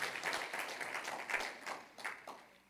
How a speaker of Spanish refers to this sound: Un aplauso fuerte, Señor, se lo fuerte, Señor.